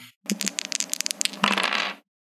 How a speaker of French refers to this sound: Résolution, tu as 3 et sorcellerie du sang, tu as 3, donc tu lances 6 dés.